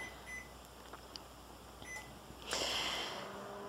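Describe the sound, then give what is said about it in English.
A few short electronic beeps from keypad presses as a microwave oven is set for one minute at 80% power to melt chocolate chips in a microwave-safe bowl, then a louder tone as it starts up with a steady hum and whir, with no talking. “And we're going to set the microwave for a minute at about, let's do 80%.”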